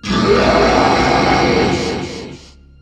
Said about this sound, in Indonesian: Tak lama kemudian, terdengar suara raungan di langit.